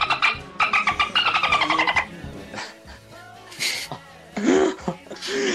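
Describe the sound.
A dolphin sound effect, used to bleep out words, of rapid, high-pitched clicking chirps bursts out loudly for about two seconds, followed by a few shorter squeaky squeals, with bits of talking in between.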